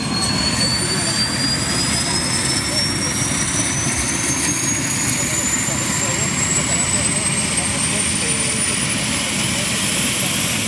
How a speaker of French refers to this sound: a découvert euh, cet hélicoptère ainsi que son équipage lors d'un exercice de treuillage autour de la base de Colombay utilisé principalement ou généralement que pour les, les alarmes.